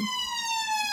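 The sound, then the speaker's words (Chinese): An ambulance siren in a UK street wails steadily, a bright harmonic-rich tone holding at a loud, sustained level with a slight downward pitch drift, and no one talking over it. “刚刚那是救护车的声音”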